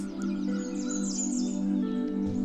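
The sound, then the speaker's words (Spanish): Small birds chirp and tweet in quick, scattered calls over a steady low background hum, like forest ambience. No one speaks. “Este cuento sucede en un bosque lleno de animales y en este bosque hay zorros, osos, ranas, alces, ardillas, muchos pajaritos y aves.”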